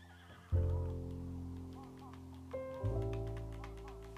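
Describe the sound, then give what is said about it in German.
A horse in a video game whinnies loudly, with a strong burst that starts abruptly and a second surge a couple of seconds later, carried over a steady low droning background. “Und hier ist ein Pferd.”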